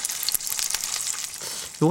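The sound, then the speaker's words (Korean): A chicken-frying sound effect: chicken frying in hot oil, a steady dense crackle and sizzle with scattered sharp pops, before a voice briefly cuts in at the very end. “치킨 튀기는 음향이라고 써 있다고요?”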